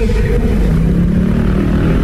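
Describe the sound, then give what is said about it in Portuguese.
A small CG 82 motorcycle passing, heard on a digitized cassette tape recording used as an effect: its engine drones loudly and steadily, a rough buzzing roar with a low rumble that holds for the whole two seconds without letting up. “A moto passando.”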